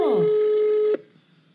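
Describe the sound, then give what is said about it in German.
A steady electronic telephone ring tone on an outgoing call holds for about a second and then cuts off abruptly, leaving faint background noise; the call goes unanswered. “Den rufe ich jetzt mal an.”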